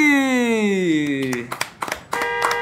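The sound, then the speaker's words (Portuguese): A handful of sharp, irregular hand claps arrive in the second half, cutting through a sustained, sliding tonal sound that fades as the clapping begins; the clapping follows the announcement of the Rogerito de Ouro award for Best Ex-BBB Singer going to a singer. “Se eu tava aplaudindo!”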